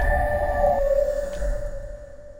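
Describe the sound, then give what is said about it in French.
An eerie monster-like sound effect: sustained, ringing electronic tones hover over a deep rumbling low end, loud and steady for a couple of seconds with no one talking. “On dirait que le monstre est avec moi studio.”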